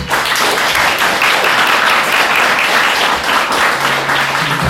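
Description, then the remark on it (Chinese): A crowd applauds steadily, a loud, dense wash of many hands clapping that holds at an even level for the whole stretch without pause, clapping to show they are willing to help two people. “愿意的掌声一下好吗？”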